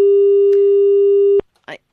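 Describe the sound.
A steady, loud electronic telephone busy tone holds for over a second after a dropped call, then cuts off abruptly, followed by a brief burst of a voice.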